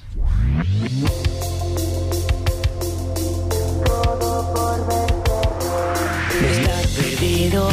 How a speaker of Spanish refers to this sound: hemos escogido un tema para ponerlo aquí en Depoyer por primera vez, que es …. Vamos a escucharlo